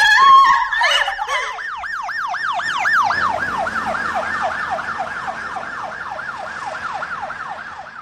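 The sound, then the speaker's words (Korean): A loud ambulance siren wails continuously in a fast rising-and-falling yelp as the ambulance heads to a hospital, repeating steadily for the whole stretch, with faint road rumble underneath and no voices. “진짜 불행 중 다행이었죠 쓰러진 걸 내가 발견했으니까 그 길로 구급차 타고 병원 가면서 심폐소생술로 살려냈단 말이에요.”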